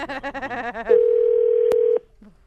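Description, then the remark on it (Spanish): A person talks briefly, then a steady mid-pitched telephone dial tone hums loudly for about a second, interrupted by a single sharp click before cutting off abruptly. “Tú márcale, por favor”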